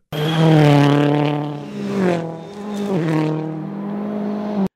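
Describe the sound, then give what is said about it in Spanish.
An off-road dirt racing car engine revs loudly, its pitch climbing, dipping and surging again in a steady roar for a few seconds, with no voices. “Los carros de dirt, los, de, los que son carreras como en tierra y en montaña.”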